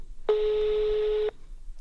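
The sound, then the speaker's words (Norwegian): A single steady ringback tone sounds for about a second as a call goes through, an even, unbroken pitch with a buzzy edge, then cuts off into quiet. “Nei, men jeg ringer henne nå, og så kan vi høre om hun har gode venninner.”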